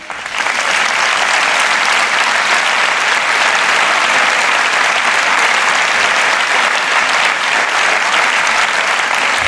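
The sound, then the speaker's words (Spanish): Sustained, loud applause from a large crowd at a Partido Popular rally for Isabel Díaz Ayuso, president of the Community of Madrid. A dense, steady roar of clapping continues without a break for nearly ten seconds, with no one speaking over it. “Esos son los aplausos que está recibiendo la presidenta de la Comunidad de Madrid, Isabel Díaz Ayuso, en ese acto del Partido Popular a la espera de esas palabras del presidente de los populares, Alberto Núñez Fijo”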